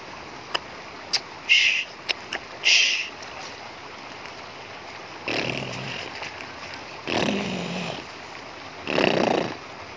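A sleeping snake snores in three drawn-out, raspy breaths roughly two seconds apart, fairly loud, preceded by a few short clicks and scratchy noises. No one speaks.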